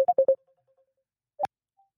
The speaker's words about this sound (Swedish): Jag ringer. Oh la la, nu ringer det. Spännande.